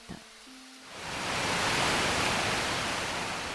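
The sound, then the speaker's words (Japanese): A waterfall's steady roar swells in after a quiet moment, then holds as a loud, continuous rushing of water with no voices over it. “あの滝に見覚えがあるここはさっきも来たところだ”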